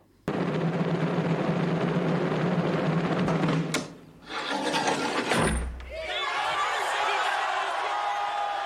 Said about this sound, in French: Le 21 janvier, il est exécuté, place de la Révolution, aujourd'hui place de la Concorde. Alors que Louis XVI est prêt à pardonner ceux qui l'ont condamné, la lame de la guillotine tombe.